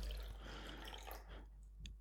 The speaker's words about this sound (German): Ich habe dir mal Wasser nachgeschenkt.